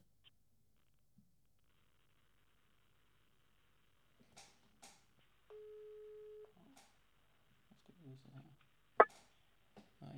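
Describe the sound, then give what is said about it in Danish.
A telephone rings after a number is dialed: one steady, buzzing ringback tone lasting about a second, surrounded by soft clicks and handling noises, fairly quiet. “Håber, han gider tage telefonen.”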